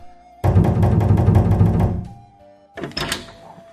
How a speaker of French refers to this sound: pendant ce temps, Aman rentrait chez lui, n'eut même pas le temps de se doucher que des gardes vinrent frapper à sa porte.